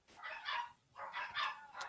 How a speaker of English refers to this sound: Uh, are your dogs singing? Uh, no, they're barking at the door because my dad is here.